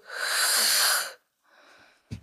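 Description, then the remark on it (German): A voice mimics heavy breathing: one long, loud, noisy breath of about a second, a pause, then a softer second breath, ending in a brief sharp sound. “ich bin bekannt für mein lautes Atmen.”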